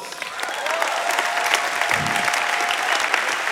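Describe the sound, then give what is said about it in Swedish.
Steady audience applause, a dense wash of many hands clapping at a fairly loud, even level, with a faint tone and a brief low thump partway through. “Du vet, eh, här är Johan Eriksson, vi ger honom en applåd.”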